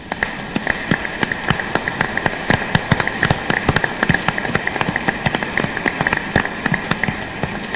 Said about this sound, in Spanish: Felicidades a todos, no nos podemos dar un abrazo, pero sí nos podemos dar un aplauso, felicitémonos mutuamente.